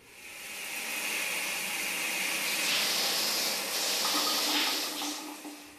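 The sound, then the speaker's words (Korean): Shower water runs steadily in a bathroom for several seconds, a full hiss of spray with slight splashing shifts midway and no voices, fading a little at the very end. “샤워를 마친 지영은 욕실을 나오자마자 열려있는 자신의 트렁크를 발견했다”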